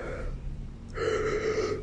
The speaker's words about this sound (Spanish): ¡Ay, vale, verga! Maldito bostezo.